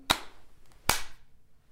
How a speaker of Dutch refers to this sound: Wat we doen. Even één goede klap zo.